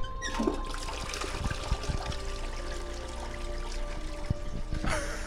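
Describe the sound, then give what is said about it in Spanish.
A toilet flushed with a pull chain, a steady rush of gurgling, trickling water lasting about five seconds, with a few small knocks and clunks along the way and no voices. “Y vamos a coronar esta linda experiencia con la cadena.”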